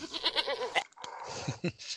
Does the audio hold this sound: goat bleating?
yes